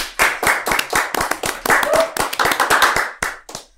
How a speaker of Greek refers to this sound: Πάμε χειροκρότημα.